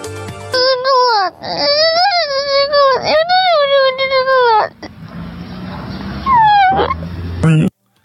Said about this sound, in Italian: Allora, eh, questo bambino sì, sta, sta piangendo, cioè si sta lamentando